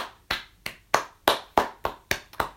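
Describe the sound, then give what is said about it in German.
About eight sharp hand claps in a steady, fairly quick rhythm, crisp, like one person applauding alone, with no talking. “Applaus, Applaus.”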